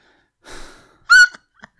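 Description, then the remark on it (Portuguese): A heavy, breathy exhale followed by a sharp, loud gasp with a strained vocal edge, then a brief faint catch of breath at the end, with no talking. “Claro que a minha respiração fica.”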